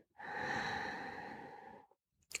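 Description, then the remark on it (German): A single deep, drawn-out breath in, lasting almost two seconds, followed by a moment of silence and a brief faint rustle at the end. “Wir atmen gern trotzdem gemeinsam ein”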